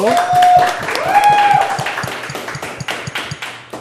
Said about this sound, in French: On peut applaudir